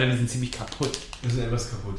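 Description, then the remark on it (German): Brief crinkling and tearing of a muesli bar wrapper as it is opened, in a few quick crackly bursts beneath steady talking from a voice. “Ähm, ja, das, das Raschen, was ihr gerade hört, das ist das, das, äh, das, das Geöffnetwerden eines Müsli-Riegels.”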